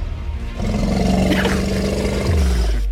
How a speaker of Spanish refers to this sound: Es un elefante.